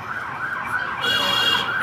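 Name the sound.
ambulance siren passing outside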